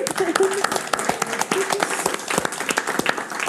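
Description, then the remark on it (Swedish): An audience applauds steadily for themselves for having come, a dense patter of many hands clapping at a moderate, even level, with a few voices calling out faintly beneath the clapping. “Jag tycker en applåd till er för att ni har kommit”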